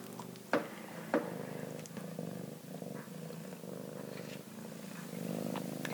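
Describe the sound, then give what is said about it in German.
A cat purrs steadily and continuously, a low rhythmic rumble throughout, broken by two brief sharp clicks or taps near the start. No one speaks. “Oh, da wird geschnurrt.”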